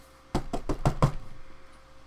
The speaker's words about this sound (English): Uh, uh, there's a knock on your front door. Not the front door of the building, your apartment.